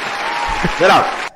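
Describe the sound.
A short, dense burst of applause from a small group, fairly close and loud, with a voice briefly whooping over it before it cuts off abruptly.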